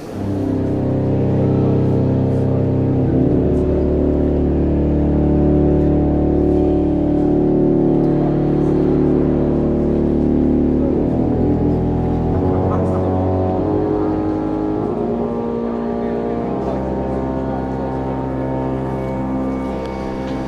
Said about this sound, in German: Dann machen wir jetzt mal einen Sprung in die nächste Sehenswürdigkeit, nämlich äh, ja, Westminster Abbey. Und ich hatte das Glück, an das an dem Tag die Orgel getestet wurde. Und wir hören jetzt uns ich einmal ganz kurz es, die ja. Oktave an.